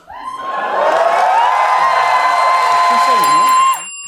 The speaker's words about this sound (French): Bon, là, vous avez entendu les gens gueuler